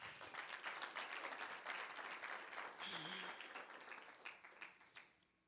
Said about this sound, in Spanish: Gracias, Señor. Gracias. Amén. Denle una prenda de palmas a Jesús.